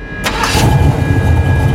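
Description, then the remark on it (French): A man's parked car engine cranks and catches, then settles into a steady low rumbling idle with no one speaking, before he drives to Napa. “L'homme monte dans sa voiture garée devant celle de ses victimes.”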